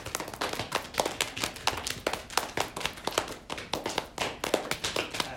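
Hands pat steadily on legs, a quick run of soft, slapping taps repeating at an even rhythm with a few louder hits, continuing without pause and with no voices.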